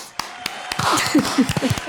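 Brief applause in honour of Rebeca Andrade from a few pairs of hands: sharp, irregular claps that thicken midway, with some voices and laughter-like sounds mixed in beneath them.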